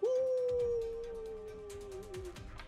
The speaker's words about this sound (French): Ah! Ah! t'entends des loups dans, dans l'air.